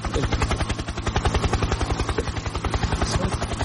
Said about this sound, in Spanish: ¿usted me puede explicar por qué hay un helicóptero posándose sobre la red en este instante?